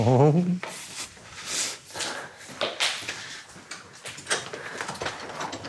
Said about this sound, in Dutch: De deur gaat open. Komen in een andere ruimte terecht.